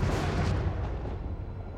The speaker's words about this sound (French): il craque, il est, enfin, il n'est pas beau, euh, mais mine de rien, ça reste la caricature du son d'orage